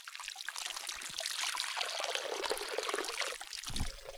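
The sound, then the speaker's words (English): Water sloshes and splashes steadily as mustard greens are washed in a large water-filled container on the ground, a continuous trickling, pouring wash with occasional heavier swishes and a low thump near the end, fairly loud, no voices. “What I'm doing, I'm cleaning mustard greens. And I have this large container here on the ground.”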